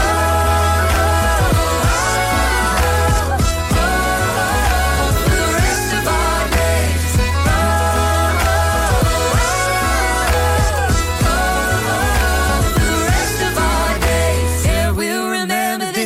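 A loud, full-sounding pop song plays continuously with a steady beat and deep bass under layered melodic parts, shifting abruptly in the last second or so.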